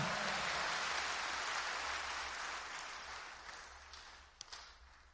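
An audience at Watoto Church gives a hand clap of praise to God, dense, continuous hand clapping, a steady wash of many claps that slowly fades in loudness over five seconds, with a few sharper claps near the end.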